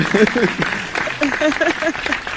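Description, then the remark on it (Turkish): A burst of applause sound effect, steady crackling claps for a couple of seconds, mixed with voices in the background. “Bak şu an doğru yerde kullanıyorum alkışı.”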